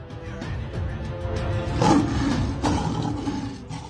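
A lion roars loudly with rough, rumbling growls and snarls as hyenas attack it, the scuffle continuing throughout, no talking; from President Bolsonaro's video of hyenas attacking a lion.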